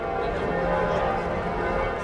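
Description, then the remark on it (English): A dense wash of many church bells ringing together in Munich, their overlapping tones clashing into a loud, continuous din that fills the whole stretch without pause. “Cacophony of Munich bell ringing.”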